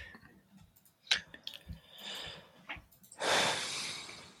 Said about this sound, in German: Also, ich dachte, das war so ein Einatmen, um noch was nee, zu sagen, aber es nee, war nur glaub, ein, nichts, ein, angestrengtes, ein angestrengtes Schnaufen.